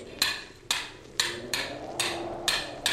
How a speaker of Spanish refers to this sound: Si este perno se resiste todavía, lo haré saltar de una vez de un martillazo.